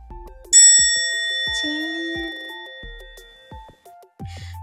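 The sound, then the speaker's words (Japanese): A bright bell ding rings out once, clear, its metallic tone ringing on and fading slowly, with a second lighter chime and faint tonal blips around it. “これさ、他の他のなんか、うーん、本出し音源、他のところでもあるのかなアプリとか入れればいいのか。”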